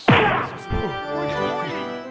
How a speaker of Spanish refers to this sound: Pégale con este martillo a ver si toca la campana.